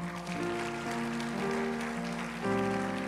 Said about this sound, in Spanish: Ahora sí, dele un aplauso al Señor.